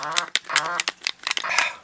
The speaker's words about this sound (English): I missed the seed from the duck flying over.